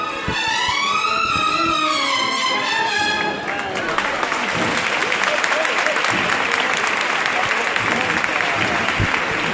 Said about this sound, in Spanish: hora a la que tenían que estar en el final de la calle Granada, que eran las 4 y 10 de la tarde, por tanto cumpliendo su horario perfectamente y recreándose con la música y provocando los aplausos que estoy seguro que vais a escuchar inmediatamente.